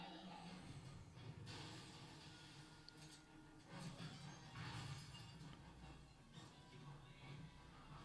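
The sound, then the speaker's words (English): Glass cracks and shatters in repeated harsh, crunching bursts over several seconds, loud, with a steady low rumble and muffled background noise underneath. “Bro, they would definitely get glass in your eye there because I'd rather have glass in my face than die from an alien.”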